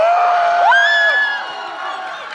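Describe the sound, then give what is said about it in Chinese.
An audience at an improvised music performance screams and cheers loudly, with piercing high-pitched shrieks from women, one rising sharply in pitch, over a steady roar that eases slightly toward the end. “我一直怀疑台下的女生的有一个尖叫的声音是我们的群友，但是我一直想不起她的名字”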